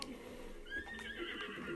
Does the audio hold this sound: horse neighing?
yes